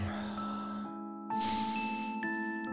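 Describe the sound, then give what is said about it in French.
A single slow, audible breath, a soft airy inhale swelling then easing out, over a quiet sustained musical drone with no talking. “Une respiration.”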